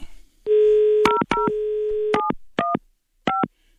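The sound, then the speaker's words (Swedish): A phone number is keyed in to call a man at home: a short run of crisp dual-tone (DTMF) beeps, some held briefly, others quick, spaced irregularly over a faint dial tone, clear with no talking. “Ska vi prova att ringa hem till honom?”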